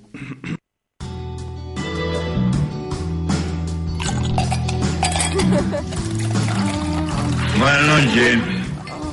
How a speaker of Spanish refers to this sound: Si a esta película porno le sacamos los hielos que caen en un vaso de whisky.